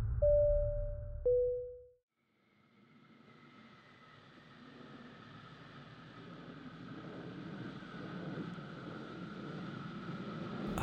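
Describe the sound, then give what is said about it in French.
Aboard an Airbus 330 on a flight to Paris-Charles de Gaulle, a two-tone chime sounds over a low rumble, then after a brief pause a steady engine hum swells in and drones on evenly, soft but constant, with a faint whine layered on top. “Le moteur ronronne doucement, le paysage terrestre s'éloigne alors que vous vous élevez dans le ciel”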